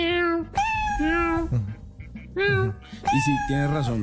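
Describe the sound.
A cat meows several times in a row, loud, with drawn-out, wavering calls that rise and fall almost like speech; the cat is learning to tell its owner that it loves her.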